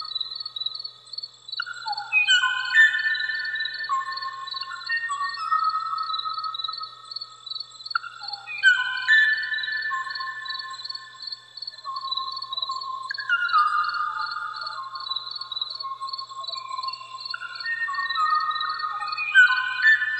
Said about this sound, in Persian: به صدای پرنده ای که منقرض شده و جهان رو از داشتن چنین آوازی محروم کرده گوش بدیم